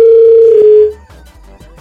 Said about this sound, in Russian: Вы думаете, что у него не может быть такого длинного гудка? Не может быть. А почему? Откуда, откуда длинный гудок? А, вот он, подожди, вот я слышу его даже.